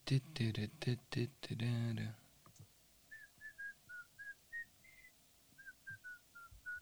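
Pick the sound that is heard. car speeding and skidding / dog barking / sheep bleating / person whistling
person whistling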